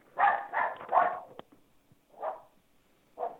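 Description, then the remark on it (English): A small dog barks five times, three quick yappy barks in a row followed by two more spaced out, clear with no one talking. “aren't going to beat that poor little dog.”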